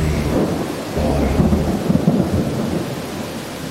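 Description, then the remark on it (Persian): Steady rain pours down with a constant hiss, while deep rolling thunder rumbles beneath it throughout, swelling slightly in the middle. No voices are present. “حس میکنی تمام ناراحتی هایی که از اطرافیان داشتی در زیر این باران شسته میشه”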